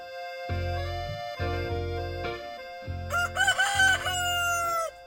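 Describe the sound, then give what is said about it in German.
A hen cackles loudly after laying an egg, giving four drawn-out, strained calls in quick succession, with a higher squawk breaking through near the end. No one speaks. “Und indem sie dann so gackert, weiß der Hahn, jetzt ist sie fertig und holt die Dame dann vom Nest ab.”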